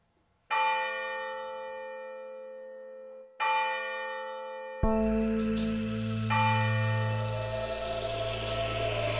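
A deep church bell tolls slowly as a death knell, two resonant strokes each ringing out and fading, then a heavy low rumble and dense noise swell in as the bell keeps sounding.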